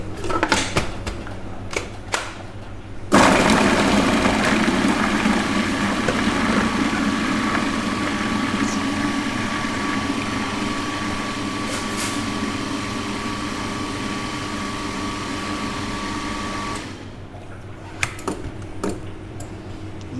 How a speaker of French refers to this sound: on met les carottes dans le mixeur pour les rendre un peu en semoule, entre guillemets.